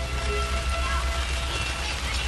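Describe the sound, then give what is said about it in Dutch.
Soft, steady rain patters on an attic roof, a continuous hiss of fine drops with no pauses, over a faint low rumble. “Eh, nou, we horen de regen op de achtergrond. Zachtjes stikt de regen tegen het zolder.”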